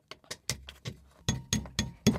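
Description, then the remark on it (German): Around nine sharp, bright taps at a quick, slightly uneven pace, as someone chips away to dig out a bone, with a hard clinking edge to each strike and no voices. “Ja, klopf mal ruhig weiter.”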